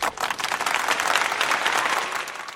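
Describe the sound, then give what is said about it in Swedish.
A crowd applause sound effect, played in tribute to Formula 1 driver Nico Hülkenberg's qualifying performances this year, with dense overlapping claps forming a bright, sustained wash of sound at an even loudness for a couple of seconds. “Alltså, vi har ju hört Nico Hülkenberg som är en, en duktig förare och hans kvalprestationer i år är ju faktiskt värda en applåd tycker jag, för de har ju varit eh, riktigt bra. Applåd.”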